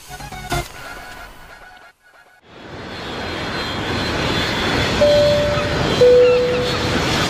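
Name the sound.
airplane engine in flight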